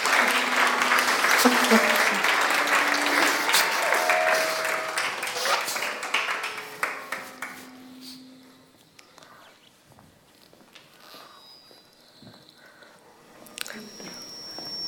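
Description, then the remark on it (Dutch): Warm applause from an audience, loud and dense for about eight seconds, then thinning into scattered claps and quiet shuffling before a few last claps. “Geef ze een heel warm applaus.”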